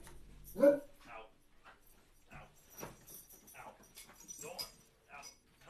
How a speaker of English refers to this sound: There the dogs go.